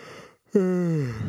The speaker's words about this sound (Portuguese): E tá sendo muito legal as gravações, mas elas demandam tempo e aí você vai ficando cansado. Olha, eu vou até bocejar, se liga.